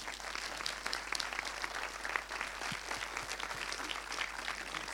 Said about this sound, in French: Je propose qu'on applaudisse très fort.